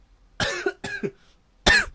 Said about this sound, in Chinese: 我真的是要咳嗽，我不是故意要在提到耶稣的时候，就是 no no offense，对 no no offense。